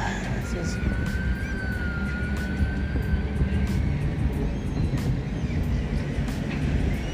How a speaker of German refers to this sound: Alarm schlägt.